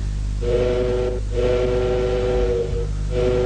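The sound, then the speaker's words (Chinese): A train whistle sounds in three long, steady blasts, each with a clear tone, separated by brief breaks, as the train departs. A low, continuous rumble of the train and a soft hiss run beneath it throughout. “你这火车站要开了”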